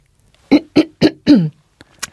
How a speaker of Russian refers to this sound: То есть вы, вы кашли?